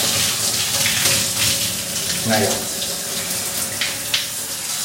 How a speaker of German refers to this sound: Ich versuche natürlich trotzdem irgendwie ins Mikro zu sprechen, aber wie gesagt, das wird mir nicht immer gelegen, da ich meine Hände ja auch bewegen muss beim Duschen, ist ja logisch.